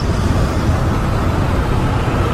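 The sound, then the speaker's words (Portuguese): A car driven by the Radinho BDF team with friends from Brasil de Fato travels along a road, with a steady, loud, low rumble of engine and tire noise that stays even throughout, with no voices. “Nós, da equipe do Radinho BDF, junto com os nossos amigos do Brasil de Fato, pegamos um carro e dirigimos um tanto para conhecer um menino que, desde o dia 1 de janeiro, se tornou muito importante no nosso país.”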